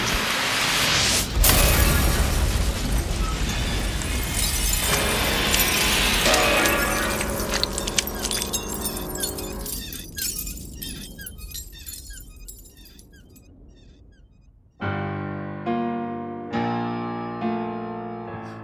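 A stone sarcophagus bursts open with a loud, sustained shattering crash, a rush of breaking debris settling into scattered clinks, followed by several ringing, sustained musical notes.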